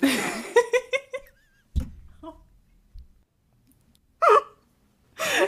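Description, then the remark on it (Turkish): A voice briefly imitates zılgıt, the high, warbling ululation done at weddings, in a quick run of pulsing cries, followed by a dull thump as the voice hits the microphone while ululating, and then bursts of laughter. “Zılgıt atarken küçük dilim mikrofona çarptı.”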